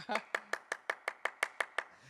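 About ten sharp hand claps in a quick, steady rhythm, evenly spaced, each one crisp and short with little echo between them, clapping to switch the coloured lights in a church.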